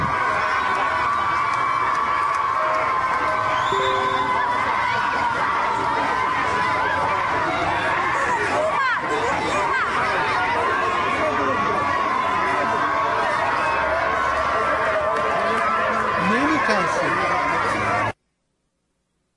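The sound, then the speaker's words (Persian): A large protest crowd gathered and chanting in Shahin Shahr on a Saturday, dense overlapping voices forming a steady, loud roar with rhythmic shouts and cheers rising throughout, no single voice standing out. “امروز شنبه در شاهینشهر در اعتراض عملات چیمه جمهوری مدارس مردم تجمع کردن ببینید”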